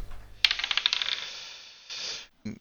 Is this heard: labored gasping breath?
no